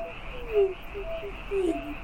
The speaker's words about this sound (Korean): 개구리도 울고 부엉이도 울고 사모님도 우는구나. 기자들은 저 소리가 그저 산짐승이 우는 소리라고 생각하겠지?